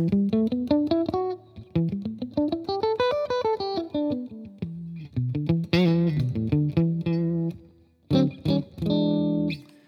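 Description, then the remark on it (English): A distorted electric guitar plays quick E minor pentatonic licks, climbing up and back down in rapid runs, then ending on a few held, ringing notes. No one speaks. “That E minor pentatonic that we all know and love.”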